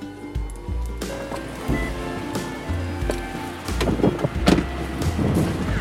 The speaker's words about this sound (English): Oh, and I hear cars. The timing could not be more perfect.